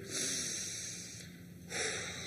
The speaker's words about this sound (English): just take a breath, I just, uh, can we just take a breath? Just breathing through the nose and out through mouth. Ready?